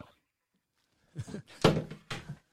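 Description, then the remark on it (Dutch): After a quiet pause, a door is handled: a short run of thuds, rattles and a firm knock-like clunk as it is opened for a visitor and shut, fairly loud. “Ik kom nu even open doen.”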